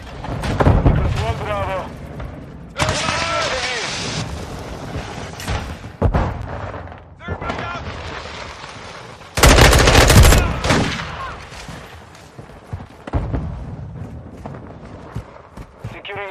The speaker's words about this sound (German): Äh, Multiplayer, die Waffen klingen toll, sehr detailliert. Ob die jetzt naturgetreu sind, keine Ahnung. Ist mir auch egal, aber es hört sich gut an.